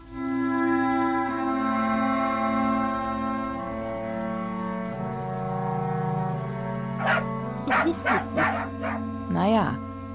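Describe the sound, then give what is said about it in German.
A sustained, horn-like melody of long held tones played by a band as a candidate car horn tune, then near the end a quick burst of several loud dog barks layered over it. “Und die Melodie, zu der von euch am lautesten gebellt wird, die wird zu meiner neuen Hupe.”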